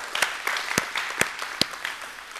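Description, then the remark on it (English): An audience at North Star claps together in praise to God, a dense, steady patter of many hands with a few sharper, louder claps standing out irregularly, no voices over it. “All right, give God another praise clap today.”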